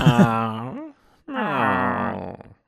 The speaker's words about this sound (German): Übrigens nur so als kleiner Nebenhinweis, ich habe auch noch zwei Katzen und die quaken manchmal hier so ins Mikro rein. Also nicht wundern, wenn das plötzlich mal so macht oder äh